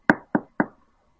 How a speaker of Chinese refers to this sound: 笨狼小心地敲敲门。